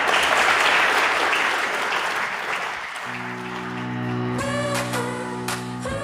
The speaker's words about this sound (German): Ihr habt den Applaus gerade gehört. Seit dem 9. Oktober, seit der Aufstellungsversammlung, ist es ganz offiziell.